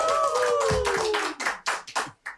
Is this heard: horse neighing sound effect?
no